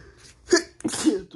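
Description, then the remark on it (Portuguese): A loud sneeze: a brief sharp intake, then a forceful, breathy burst with a voiced tail, heard on its own with no talking. “Ai, nossa, essa, nossa, esse espirro doeu muito.”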